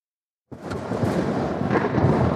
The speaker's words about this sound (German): Das Wetter kippt. Es beginnt zu regnen und zu stürmen.